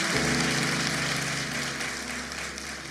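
An audience applauds a member's 42-year marriage, a dense steady wash of clapping at moderate loudness that holds evenly throughout, with a low hum underneath and no voices.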